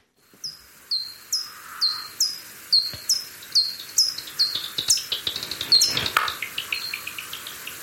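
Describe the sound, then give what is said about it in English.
Bat echolocation calls recorded out in the field with a bat detector: a steady series of short, sweeping chirps that speed up into a dense, crackly run of clicks and pops, clear, with no voices. “the bat detector has recorded the noise that the bat's making”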